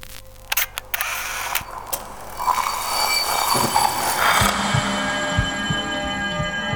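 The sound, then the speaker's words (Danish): A few sharp mechanical clicks in quick succession as two audio recorders are switched off at the same time after a countdown from three, followed by a steady hiss and then a low, pulsing tonal sound with no talking. “Skal vi slukke vores optager samtidig?”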